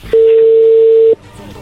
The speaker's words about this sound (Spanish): ahí entró la llamada.